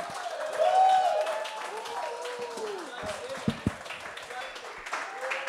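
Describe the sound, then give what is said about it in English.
A comedy show crowd applauds steadily for several seconds as comedian Monroe Martin is brought to the stage, dense clapping mixed with cheering and whooping voices, with a few sharper individual claps standing out partway through. “Clap it up for me.”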